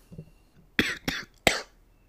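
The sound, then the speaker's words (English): Three sharp, harsh coughs in close succession, the first two quick together and the third after a brief pause, with a faint low murmur before them. “Finally, we got the cough.”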